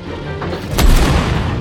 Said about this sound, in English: Suddenly, Pool's tank, called In the Mood, fired its 76mm M1 cannon.